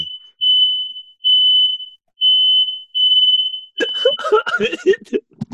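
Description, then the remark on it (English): A smoke alarm sounds in loud, shrill, steady tones, four long beeps with short gaps, then laughter and chatter break out over the last beep. “Is that your fire alarm? My fucking fire alarm.”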